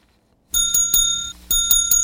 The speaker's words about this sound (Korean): 음, 방울소리군요. 네. 이쁜 소리입니다.